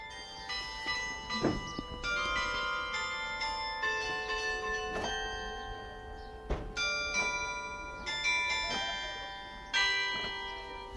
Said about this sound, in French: Eh ben, il est midi, le carillon a sonné, la distribution va commencer.